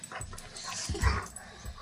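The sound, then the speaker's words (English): A dog named Jake gives a few short, yappy barks in quick bursts, not loud, with some faint background noise and no one speaking. “Oh, Jakey, poor dog.”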